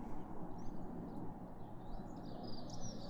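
Faint birds chirp outdoors, thin scattered calls over a steady low rumble of background noise, with no one talking.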